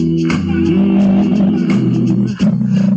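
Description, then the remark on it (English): A loud, steady old-school groove song plays throughout, with warm sustained bass and chords under a regular beat of soft percussive hits, briefly dipping near the end before picking back up. “Just a riding down the car kind of song.”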